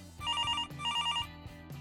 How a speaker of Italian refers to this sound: La linea squilla a vuoto. Nessuno risponde né a quella né alle chiamate successive.